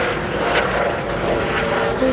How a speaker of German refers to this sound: Gestern war auch weniger Flugzeug. Es war zwar auch ein Flugzeug zwischendurch zu hören, aber nicht so wie das hier gerade.